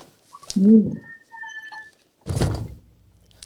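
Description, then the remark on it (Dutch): A large, heavy cardboard box holding 38 books is set down with a solid, dull thud that rumbles briefly and fades. Before it, a soft cooing and faint tonal sounds are heard; there is no talking. “Dus ik ga even de doos erbij pakken. Het is een hele zware doos. Er zitten 38 boeken in.”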